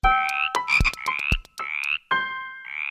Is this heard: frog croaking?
yes